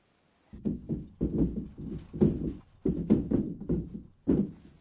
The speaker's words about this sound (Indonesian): Apakah itu suara perabot berguncang saat gempa? Dalam bahasa Jepang, kita menggambarkan bunyi itu seperti berikut. Gata-gata. Gata-gata mengungkapkan bagaimana rak-rak dan meja terus berguncang sedikit demi sedikit.